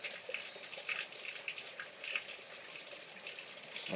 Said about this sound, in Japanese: 意識した時しか水の音聞こえないですけど、機械で撮るとすっごい水の音する。カクテルパートナー効果ですね。聞きたい音だけ聞くみたいな。